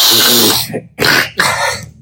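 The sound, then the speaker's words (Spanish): A voice imitates a loud, wet snorting sniff, sucking mucus back up the nose, in three close, harsh bursts: one long, then two shorter, with no talking. “en vez de sonarse, pararse y sonarse la nariz, se lo suerven para adentro lo hacen inconscientemente”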